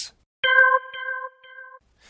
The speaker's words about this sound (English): And when the conversation does get snipped off, I use a little tone uh, that comes from the GarageBand program on my Macintosh computer, and it is a smooth jazz organ tone, and it's a simple tone, and it sounds like this.